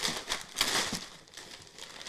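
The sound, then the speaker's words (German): Crisp crinkling of reused gift wrapping paper being handled and unfolded, a burst of rustles followed by softer, continuous crackling as a package is unwrapped, with no talking. “Weil das Geschenkpapier müssen wir wiederverwenden.”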